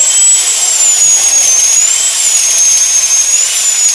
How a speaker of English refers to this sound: For, so for you, just think about a dentist's drill.